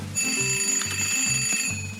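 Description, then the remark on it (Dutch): A telephone rings with a steady electronic trill, a bright sustained tone over a low buzzing pulse that repeats about twice a second, loud and with no voices. “Maar als ik zeg wat toen gebeurde, gaat de telefoon.”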